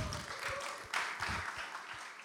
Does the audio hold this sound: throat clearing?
no